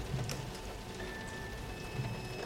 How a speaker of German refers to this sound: Der Regen fließt in langen Schlieren an den Fenstern entlang.